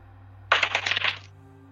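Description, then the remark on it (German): A die is rolled across a tabletop for a stealth check in a role-playing game and lands on 15: a quick rattle of several small hard clicks tumbling over about three-quarters of a second before settling, with a faint steady hum behind it and no talking. “So, der Würfel ist 15.”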